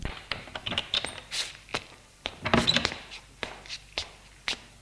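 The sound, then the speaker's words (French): An entrance door is opened amid a scatter of sharp clicks and light knocks, with a louder clattering thump midway, as a latch and handle rattle. No one speaks. “l'entrée s'ouvre.”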